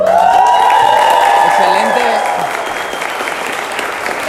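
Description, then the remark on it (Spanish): Loud, dense applause from an audience for their next ambassadors, steady for about two seconds before easing to a lighter but continuing patter of clapping, with faint cheers mixed in. “Bueno, yo quiero, yo quiero pedir un fuerte aplauso para nuestros próximos embajadores,”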